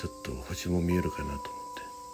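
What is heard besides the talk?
cicadas chirping outside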